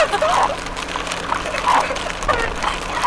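Heavy rain pours down in Hokkaido in a dense, steady hiss that stays loud throughout, with faint splashing and muffled murmurs mixed into the roar.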